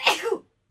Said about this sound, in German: Gesundheit. Siehst du?